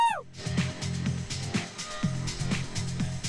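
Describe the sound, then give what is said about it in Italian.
A long electronic music build-up: a steady pulsing beat about twice a second over a droning bass and bright, hissy synth layers, loud, with no voices. “sentite con noi questo drop lunghissimo? Scusate, build up lunghissimo, vergogna.”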